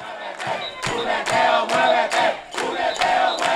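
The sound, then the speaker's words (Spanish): A loud protest crowd on the other side of Fortaleza from where tear gas was fired shouts and chants together in a steady rhythm, punctuated by sharp, regular bangs roughly twice a second, with the mass of voices continuous. “La gente se activa.”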